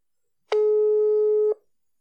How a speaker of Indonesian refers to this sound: Mari kita telepon.